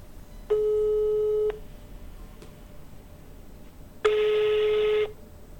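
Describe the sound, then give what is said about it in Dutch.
Two steady, one-second electronic telephone tones, separated by a few seconds of quiet line hiss, like a busy signal and a voicemail beep. The second tone sounds harsher and buzzier. No voices. “Is op dit moment in gesprek. Laat een bericht achter na de toon.”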